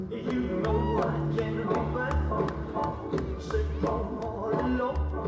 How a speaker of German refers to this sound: Das Staccato der Holztrommeln begleitet viele polynesische Tänze, die auch im Circus Samoa zum Standardprogramm gehören.